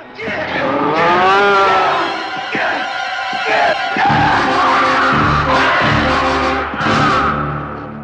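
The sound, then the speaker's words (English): A bull bellows loudly as it finds a man in a concrete maze and gores him against a wall, its deep, drawn-out roars repeating over several seconds, mixed with scattered thuds and clattering commotion. No one speaks. “until the bull finds him and gores him against the wall.”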